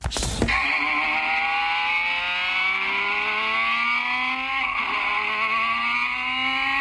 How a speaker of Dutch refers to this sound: Ja, dat is dus gewoon het, geluid. Dan in een heel klein kaartje, denk ik, van de Valkyrie, toch? 11.000 toer per minuut.